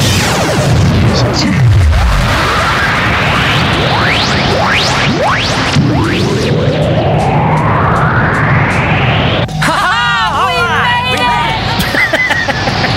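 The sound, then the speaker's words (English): A spaceship section ejecting amid a loud, continuous wall of rumbling booms, whooshes and rising and falling sci-fi sweeps, with shouting voices breaking through near the end. “Uh, and they eject part of the ship to make sure that they don't that they make it more maneuverable so they can get around the ship or get around the balloon.”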